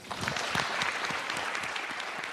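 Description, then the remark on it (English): An audience at the COVID 19 Unmasked panel discussion in New Zealand applauds the panel steadily, a dense wash of many hands clapping at once, sustained and fairly loud throughout with no voices standing out. “We'll give them a round of applause.”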